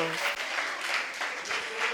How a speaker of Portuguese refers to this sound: Aplauda o Senhor pela vida do pessoal do teatro.